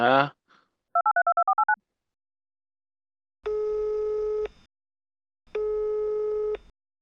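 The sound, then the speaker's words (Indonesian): A quick burst of keypad dialing beeps, then two long, steady telephone ringing tones with a pause between them, clear and fairly loud with no talking; a phone call being placed to someone in Malaysia. “Kamu di Malaysia, bentar aku telepon dulu lah.”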